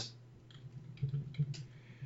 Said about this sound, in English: I can hear you typing. List of Atlanta Thrashers draft picks 1999, round one, pick one.